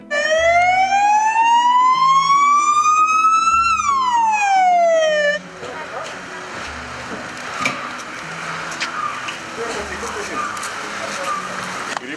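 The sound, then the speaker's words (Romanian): A loud ambulance siren wails, one long tone climbing then sweeping back down over about five seconds, before cutting off into a busy, murmuring background with voices; the ambulance is taking a man to hospital. “L-au trimis cu ambulanța la spital, evident”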